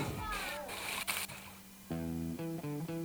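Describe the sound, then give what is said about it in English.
Beer pours and splashes into a glass for a couple of seconds, a fizzy, sloshing rush, then a man begins talking as the pouring gives way to his voice. “and I just love the sound of beer being poured into a glass.”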